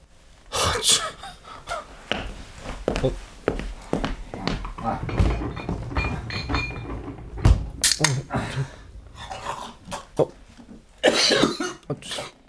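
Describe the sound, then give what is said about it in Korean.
Repeated harsh coughing fits, a series of sharp, loud bursts with gasping breaths between them, as someone chokes on a drink; no speech accompanies the coughs. “천천히 마셔요. 그러다 또 살에 들려요”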